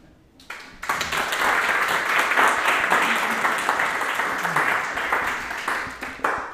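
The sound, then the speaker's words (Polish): An audience breaks into applause in approval of a proposal to send a letter, a dense wash of many hands clapping that starts abruptly, holds steady and loud for several seconds, then thins slightly toward the end with a few sharper claps. “Myślę, że te oklaski e, są taką aprobatą e, dla tego pomysłu e,”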